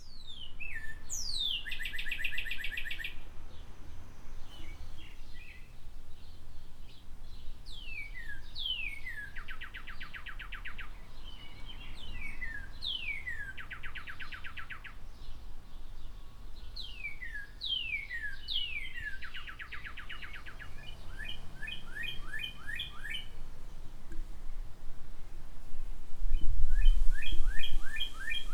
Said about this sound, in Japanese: ここでですね、私が実際にこの芸術村で毎日耳にしていた美しいカーディナルの歌声をマイクで録音いたしましたので、どうかお聴きください。